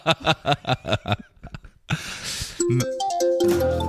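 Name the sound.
mobile phone ringtone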